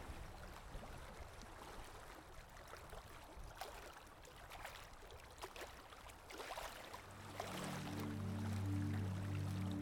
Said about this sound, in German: Für eine Zeit lang höre ich nur noch das Meeresrauschen.